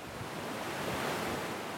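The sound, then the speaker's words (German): A steady, loud roar of floodwater from the Main river rushing over the weirs of the Astheim barrage near Volkach during the February and March flood, up to 400 cubic metres per second, a dense continuous wash of noise with no pauses and no voices. “An der Staustufe Astheim bei Volkach schossen die Wassermassen über die Sperrwehre bis zu 400 Kubikmeter pro Sekunde.”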